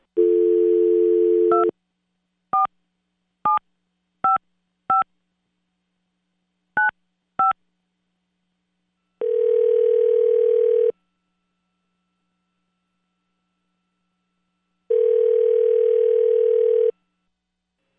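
A phone dial tone hums briefly, then a quick series of touch-tone beeps punches in a number, followed by two long ringback tones separated by silence. No one speaks.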